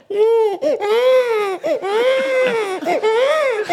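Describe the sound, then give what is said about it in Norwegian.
A baby cries loudly and continuously, wailing in long rising and falling bursts with brief catches of breath between them, with no other voices. “Nå var du som hjemme, André. Ja. ja. I bleieland.”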